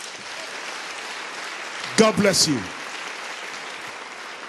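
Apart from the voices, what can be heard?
audience applause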